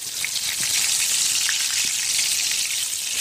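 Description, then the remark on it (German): Steady sizzling of food frying in a hot pan, browning on one side while being checked with tweezers, a dense crackling hiss with occasional sharper pops, continuous throughout and with no talking. “Ich schaue dann eben mit der Pinzette ob es die richtige Bräune hat von der einen Seite.”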